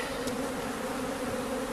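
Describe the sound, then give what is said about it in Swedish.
A dense, steady drone of many honeybees buzzing together as a swarm is poured from a box onto a swarm board leaning against an empty hive and quickly spreads over it, a continuous humming swarm with no pauses and no voices. “Det är mycket bin och de sprider sig snabbt och täcker varenda del av skivan och kanterna på den.”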